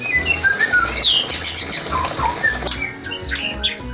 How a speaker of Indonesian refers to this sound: Selain kucing dan anjing, burung juga jadi satwa favorit untuk dipelihara. Salah satu yang tengah naik daun, ini nih, burung murai.